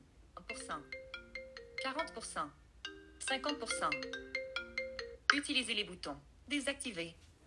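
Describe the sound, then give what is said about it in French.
A bright, synthetic phone ringtone melody plays as a preview in repeating bursts of quick tonal notes while the phone's ringtone and notification volume is adjusted, and a person speaks over it toward the end. “Alors, le volume suivant concerne seulement la sonnerie et les notifications.”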